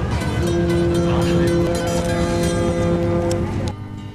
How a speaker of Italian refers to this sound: Alle 11 il suono della sirena ci avvisa che la nave sta per partire.